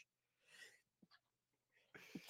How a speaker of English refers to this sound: I'm so worked up, I'm sneezing. Bless you. Bless you.